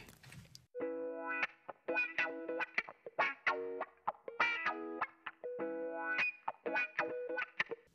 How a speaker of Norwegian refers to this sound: Og hallo! Der hørte vi endelig Sonic the Hedgehog-sangen, eh, som heter 'Sonic Gargles with Garden Marbles'.